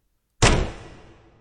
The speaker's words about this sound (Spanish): dio tal portazo que por poco le aplastan la nariz a Elizabeth